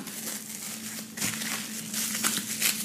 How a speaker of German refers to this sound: Ja, das Ganze, wie gesagt, in Frischhaltefolie einwickeln.